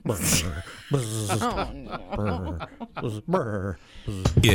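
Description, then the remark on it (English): A voice imitates a shivering winter mosquito, buzzing and trembling through a string of voiced brr-like sounds broken by short hissy bursts, with a hint of chuckling. “we will have to work on my sound effect for the winter mosquito. It's going to be bzz, brr”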